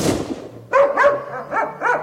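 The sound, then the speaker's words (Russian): A dog barks about five times in quick succession, short yappy barks with a slightly whining tone, following a brief muffled rumble. “И паренек твой не вышел, и собака залаяла Собака залаяла”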